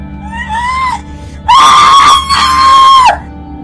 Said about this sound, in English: Why are you screaming when I haven't even cut you yet?